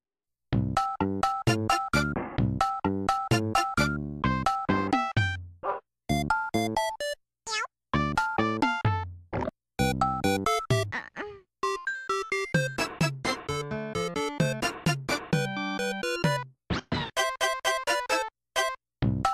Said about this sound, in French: on va écouter le troisième morceau de … parce qu'il est absolument extraordinaire